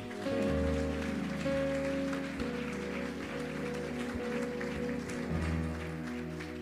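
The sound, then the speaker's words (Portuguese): An audience claps steadily for several seconds, applauding the King of Glory in worship, a dense wash of applause while sustained keyboard chords hum underneath. “Você pode aplaudir ao Rei da Glória?”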